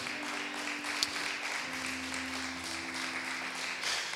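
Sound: church audience applause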